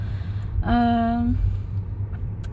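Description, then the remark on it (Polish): Steady low road rumble inside a moving Tesla electric car, continuous, with a brief tonal hum-like voice sound rising out of it midway before fading. “Jedziemy w Tesli, więc zakładam, że e, samochody autonomiczne nie będą czymś abstrakcyjnym, jak to jest obecnie.”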